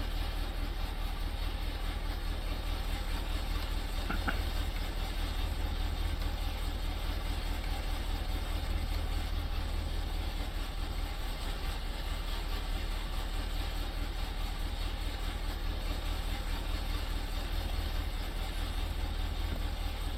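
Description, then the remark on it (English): A bus engine with custom engine sounds runs steadily for the whole stretch, a deep, constant rumble with a faint rhythmic chug and hiss layered on top, with no one talking over it. “Wait till you hear the engine sound.”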